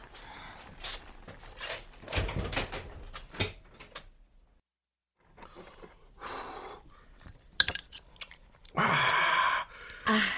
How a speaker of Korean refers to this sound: 어우 문소리 발소리 심하게 우렁찬데.